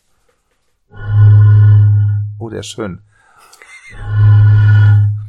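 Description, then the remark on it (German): Two loud, steady hollow hoots from blowing across the mouth of an empty bottle, each lasting over a second, with a brief spoken remark in between. “dann habt eine leere Flasche. Der Hund ist unruhig oder was, keine Ahnung, dann nehmt die Flasche an den Mund und.”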